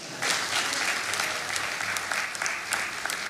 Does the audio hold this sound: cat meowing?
no